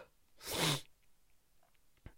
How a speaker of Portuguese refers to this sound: Vou espirrar.